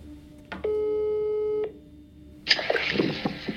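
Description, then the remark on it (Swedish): A single steady electronic ringback tone sounds for about a second as a phone call is placed again, clear, followed by a burst of muffled line noise and rustling as the call connects. “Vi mejlar honom två gånger och ringer upp igen.”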